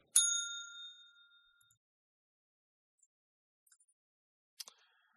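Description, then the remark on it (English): A small bell is struck once, giving a bright, clear ding that rings and fades over about a second; after a few seconds of quiet comes a short sharp click. “So I'm going to hit the bell.”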